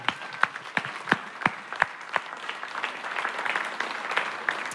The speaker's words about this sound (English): I know you just clapped, but let's clap again. Come on.